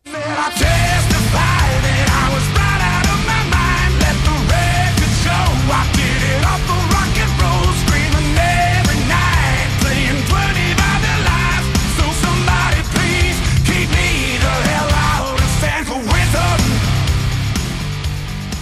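A loud, dense stretch of rock music from a band's new record plays continuously, with a full band sound of driving guitars and drums and what seem to be shouted vocals, steady throughout.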